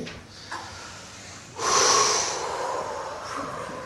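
A deep, audible inhale suddenly swells into a breathy rush, then slowly tapers off, like several people taking a big breath together in a guided relaxation exercise. No one speaks.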